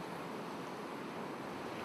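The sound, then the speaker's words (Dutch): Sea waves wash steadily against the shore, a continuous broad roar of surf with a faint windy hiss, heard alone and at a moderate distance. “In de verte klinkt en weer klinkt de zee.”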